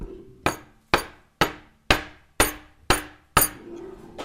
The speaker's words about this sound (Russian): Могу еще кружки постучать. Сейчас буду... Давайте я возьму микрофон и постучу кружкой.